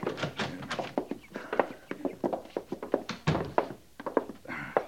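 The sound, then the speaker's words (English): A door is opened and shut amid a busy run of knocks, clicks and wooden thunks, with one heavier thud partway through; moderately loud, with no talking. “I'll get the door for you, Captain.”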